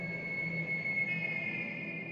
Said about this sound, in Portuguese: Enquanto tomavam uma sopa preparada por Maria, dentro da casa de seu Afonso, o chefe Juan e os escoteiros ouvem um apito. O apito vem do mato. Todos se olham assustados.